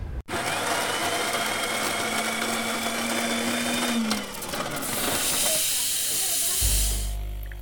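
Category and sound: machine, coffee machine hissing steam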